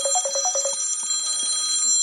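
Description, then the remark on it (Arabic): A phone rings with an incoming call as the other party calls back after the line cut out: a quick burst of rapid, trilling electronic beeps followed by fainter lingering tones, with a steady high-pitched whine underneath and no one speaking. “اه هو عم بدق لي”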